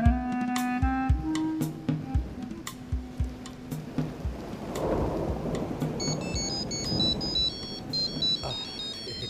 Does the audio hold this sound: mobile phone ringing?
yes